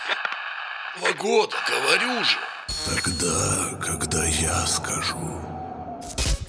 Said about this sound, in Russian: Так, опять помехи.